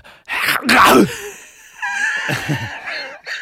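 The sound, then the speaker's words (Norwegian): A voice imitates four snowboards and a roof box tearing off a car roof at about 110 on a motorway past Liertoppen outside Drammen: a loud, breathy ripping burst, then a wavering whistle-like drone that trails off, with no talk over it. “Hvor da fire snowboards og en eh, takrenn eh, seilte liksom av Fløy av eh, taket.”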